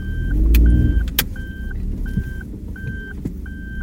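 A large vehicle rumbles close by, its low engine noise swelling then easing, while a steady series of short electronic beeps repeats at an even pace throughout. No one speaks.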